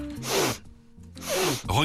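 Loud sniffing by a coworker at the next desk in an office repeats in two long, breathy intakes a second apart, then a shorter third sniff, with no talking alongside.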